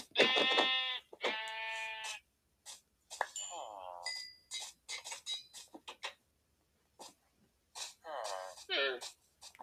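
sheep bleating

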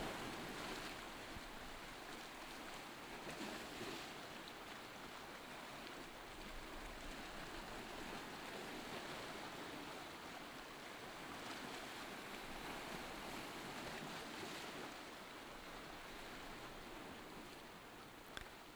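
ocean waves

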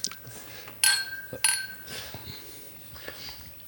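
glasses clinking

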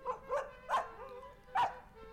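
small dog barking

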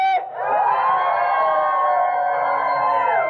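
audience screaming and shouting

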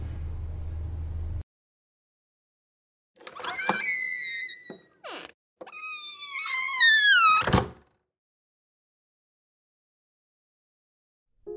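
door being opened

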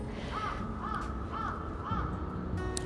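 crow cawing

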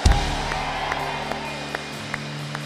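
audience applauding

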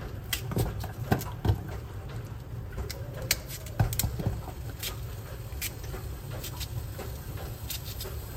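food sizzling

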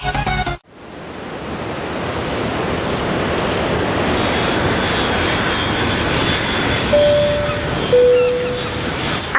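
airplane engine in flight

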